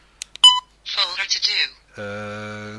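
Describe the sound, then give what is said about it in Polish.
A quick run of sharp, high-pitched electronic beeps from a Milestone device, sounded when the right arrow is pressed at the end of its basic folder structure, followed by a brief burst of voice and then a steady, buzzy electronic tone. “Eee, Milestone e, wydał z siebie e, piknięcie taki no, dosyć e, wysokiej częstotliwości, oznajmiając, że to jest już koniec podstawowej struktury folderów i nic więcej mm, w pamięci wewnętrznej już e, nie ma”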